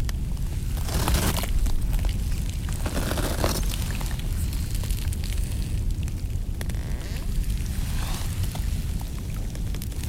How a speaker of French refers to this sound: Le lac est juste là, un peu plus loin. Je m'approche pour enregistrer ce petit bruit presque imperceptible de l'eau qui devient glace.